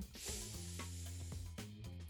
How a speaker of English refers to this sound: ready to roll, people. It's time for the spray.